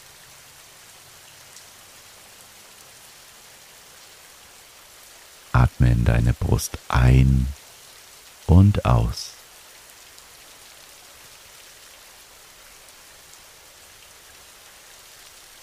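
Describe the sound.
Steady, even rain hisses throughout as a soft, constant wash, while a calm voice speaks briefly over it in the middle.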